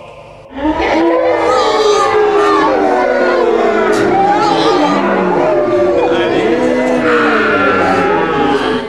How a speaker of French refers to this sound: Ses mains se tordaient, son corps était agité de tremblements. Alors il poussa un hurlement effrayant qui se répandit comme un torrent de contagion à travers toute la foule des revenants.